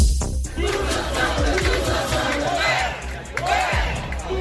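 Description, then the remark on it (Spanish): French protesters shouting together at a national mobilization demanding a wage increase, a loud, continuous mass of raised voices with rising chant-like calls and scattered whoops over a steady rumble. “Así gritan los manifestantes franceses que participan hoy en una movilización nacional para exigir un aumento salarial.”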